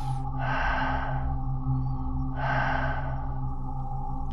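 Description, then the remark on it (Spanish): Heavy, slow breathing: two long, loud breaths, each a broad airy rush lasting about a second, separated by quieter pauses, with no talking. “Su respiración la podía escuchar arriba de mi cabeza, como un”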